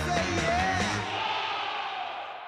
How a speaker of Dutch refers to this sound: In de studio juicht veel van blijdschap. Dit is het helemaal.